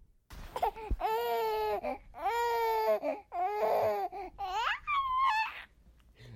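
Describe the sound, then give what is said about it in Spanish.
A four-month-old infant babbles in a series of drawn-out, wavering vocal sounds, five or six fairly loud bursts with rising and falling pitch, some edging toward a whiny cry, and no adult speech. “entonces por eso hacía esos ruidos como si quisiera hablar.”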